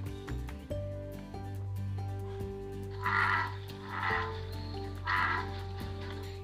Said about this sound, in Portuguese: Esse nome touro gigante, ele se dá ao fato do canto, ao som que o macho emite para atrair a fêmea, o coachar, né? eles chamam de coachado, que é este som aqui.